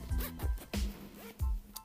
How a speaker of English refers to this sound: yeah, zippers, then it's actually me putting together my little baby backpack because I have a little tiny baby backpack that I take to school along with my big one too.